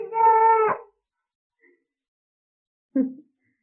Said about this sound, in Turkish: Bu işittiğiniz ses oğlum